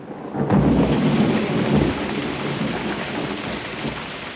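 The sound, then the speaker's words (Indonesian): Steady, heavy early-June rain that has fallen without stopping since the previous night pours down with a dense hiss, while a low thunder rumble swells near the start and fades into the continuous downpour. No voices. “Hujan tak berhenti turun sejak semalam.”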